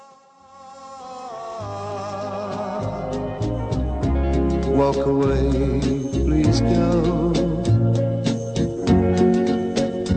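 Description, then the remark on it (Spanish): A slow rock ballad sung in English by a male vocal over sustained bass, steady drums and layered guitars or keys, building in fullness and staying loud throughout. “Bien, pues vamos a escucharla que es muy bonita además, ¿eh?”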